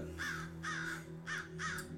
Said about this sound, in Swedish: Och att de där kråkorna du har där uppe